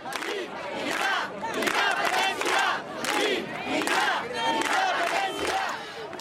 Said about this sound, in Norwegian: Sånn hørtes det ut da opp mot en million mennesker demonstrerte for et selvstendig Catalonia i Barcelona torsdag kveld.